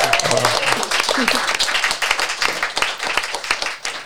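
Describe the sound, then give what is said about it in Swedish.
Audience applause: a steady, dense wash of many hands clapping at once, loud and continuous for about four seconds, with a few low murmurs of voices mixed in early on. “Härligt med applåd!”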